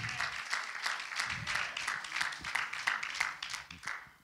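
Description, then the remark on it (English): An audience at Hatchbend Apostolic Church gives a hand clap of praise to God, steady, dense applause lasting several seconds, a crowd of overlapping claps with faint voices mixed underneath. “Let's give God that hand clap of praise.”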